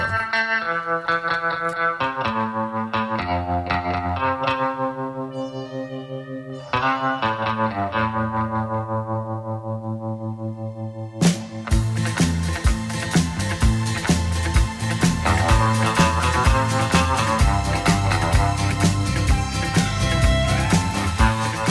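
Instrumental electric guitar music played on Recuerdos FM radio, with a twangy, echo-laden lead melody over bass and steady drums, quieter at first before the full band kicks in loudly around the middle, no vocals.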